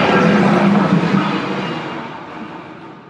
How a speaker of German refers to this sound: Vielleicht schneide ich das raus, aber da ist gerade ein Zug vorbeigefahren.